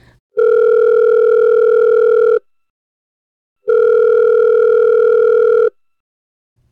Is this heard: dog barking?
no